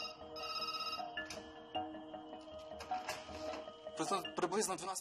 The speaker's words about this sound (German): Es war gegen Mitternacht. Der Alarm ging an. Die 330 Kilovolt Anlage schaltete sich plötzlich ab, die 110 Kilovolt Anlage auch. Aber das System meldete keinen Notfall.